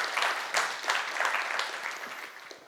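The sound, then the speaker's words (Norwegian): Audience applause at a church service: a steady wash of many hands clapping for a few seconds, dense and bright, with sharper bursts early on before it gradually thins and softens. “Du kan godt gi en applaus.”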